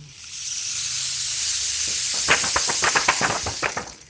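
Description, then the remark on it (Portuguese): Rain begins falling in a thunderstorm as a steady hiss that builds, with a quick run of sharper patters and drips breaking through over the last couple of seconds. No voices. “A chuva começou a cair.”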